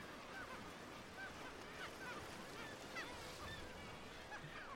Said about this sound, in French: Au Spitzberg, les colonies d'oiseaux font le bonheur des ornithologues, notamment sur les falaises d'Alkefjellet, où l'on a recensé certains étés jusqu'à 60 000 couples de guillemots.